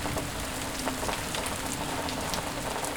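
Steady rain falls continuously in a forest, a dense patter of drops striking a surface with a constant hiss, even throughout with no voices.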